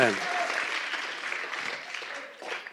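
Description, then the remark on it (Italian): Steady audience applause fills the whole stretch, a dense crackle of many hands clapping at an even loudness, with a few faint voices mixed in beneath it; the audience's second spontaneous applause for a professor at the start of a lecture. “Grazie di questo secondo spontaneo applauso.”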